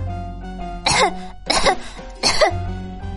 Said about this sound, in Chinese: 他咳嗽不停，他好想哭啊，可是他不能哭。